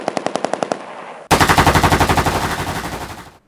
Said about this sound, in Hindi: दोनों ने सबसे आगे घात लगाए बैठे कैप्टन जयदेव और उनके साथी पर जमकर ए के फोर्टी सेवन की गोलियां बरसाना शुरू कर दी